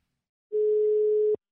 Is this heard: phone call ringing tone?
yes